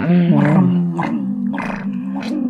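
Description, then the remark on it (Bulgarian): A person imitates the grumbling of Daddy Gugu, a storybook character searching for food and scratching his beard, with a low, steady, growly hum broken by a few raspy, breathy bursts. It is loud and unbroken, with no words spoken. “Показано е как търси храна, как мърмори и се почесва по брадата.”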